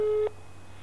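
A single short burst of a telephone ringing tone, a steady electronic pitch lasting about a quarter second before cutting off, leaving a low line hum behind it.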